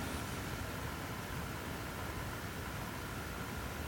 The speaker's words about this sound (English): I don't think there's even any bird song to listen to today. You can probably just hear the fans on my computer.